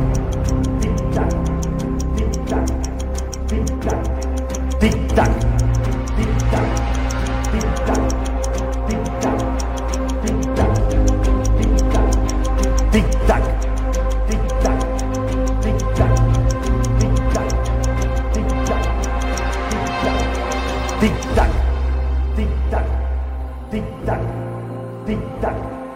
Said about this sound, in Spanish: tic tac